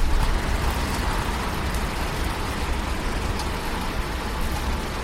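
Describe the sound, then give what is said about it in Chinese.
Steady rain falls without pause, a dense, even hiss spread across the whole range with a low rumble underneath. The wash stays at a constant level throughout, with no voices. “让大家听到这个背景背景有这个这个这个自然的声音啊，自然这个雨的声音，大家听一下。”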